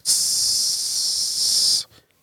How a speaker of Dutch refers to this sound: Je staat, Zuig lucht naar je buik, houd het vast en dan blaas je het met een, in de oefening blaas je het met een sissend geluid uit.